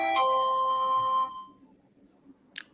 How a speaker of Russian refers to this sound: кто-то мне тут звонит, сейчас, секунду, друзья.